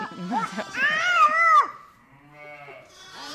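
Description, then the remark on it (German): A small boy, carried on his mother's back among a group of ewes with their lambs, imitates a sheep with a single drawn-out, wavering bleat, fairly loud, then a quieter stretch of soft background noise and a faint breathy sound. “Hm, er macht auch schon Schafgeräusche.”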